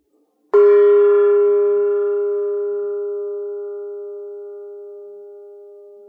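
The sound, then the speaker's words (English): A dinner bell is struck once, giving a bright, clear metallic tone that rings on and slowly fades over several seconds. Nothing else is heard, and no one speaks. “I'm feeling very good, and like, for example, when I heard the dinner bell, I thought, what a lovely sound, and I enjoyed it”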